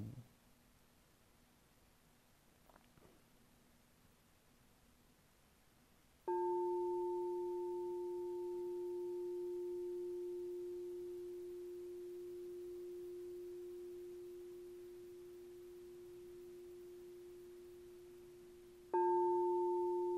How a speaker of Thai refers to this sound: หลวงพี่จะเคาะระฆังให้ดังขึ้น ให้ท่านทั้งหลายสังเกตถึงเสียงที่ดังขึ้นนั้น ดังขึ้นพร้อมกับลมที่พัดเข้าหรือพัดออก